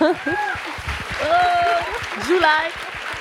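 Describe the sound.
An audience claps steadily throughout, a dense patter of hands, while voices and laughter rise and fall over the applause.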